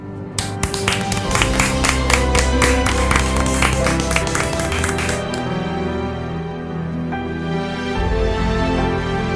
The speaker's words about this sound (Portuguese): Uma salva de palmas para Gugu Liberato.